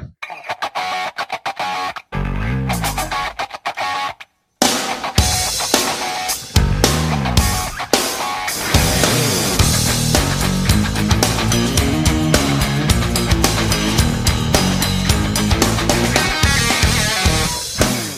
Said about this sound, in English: Let's listen to some crunchy guitars and get right after it.